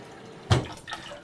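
A single sharp splash of water at a sink as dishes are washed, followed by softer trickling and clinking. No one speaks.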